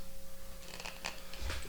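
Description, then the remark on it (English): A mobile phone vibrates in a steady low buzz with a faint higher hum, broken by a few short rattling, scraping clicks. It is fairly quiet, and no one speaks. “Yeah, that, that was that was my phone.”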